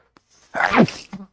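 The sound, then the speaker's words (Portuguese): One loud sneeze: a faint intake of breath, then a sudden voiced burst that trails off into a brief sniff. No talking. “Eu vou espirrar aqui, desculpa.”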